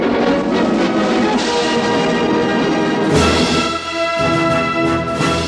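A loud, dense orchestral fanfare plays with sustained brass-like chords, shifting to a brighter, fuller passage about halfway through: the opening signal of the old communist-era Polish television news program.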